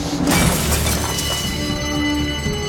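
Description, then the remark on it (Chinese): A glass window is smashed with an elbow: a loud, bright shattering crash at the start, followed by a sustained ringing, tinkling wash with steady tonal hums underneath. No one speaks. “然而 Michael 早有预料，一肘子捶碎了玻璃”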